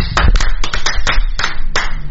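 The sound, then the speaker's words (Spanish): Hands clap in applause for Guimaraes, a loud, steady run of about eight sharp, crisp claps over roughly two seconds, with a low rumble of background noise underneath and no talking. “Un asterisco me pongo, aplausos para Guimaraes.”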